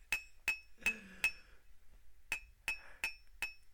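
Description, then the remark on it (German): A pocket knife taps against a cup in a series of sharp, ringing clinks, four quick strikes, a brief pause, then four more, clear with no talking. “Oh ja, hört zu, wie ich mit diesem Taschenmesser an dieser Tasse rumklinke.”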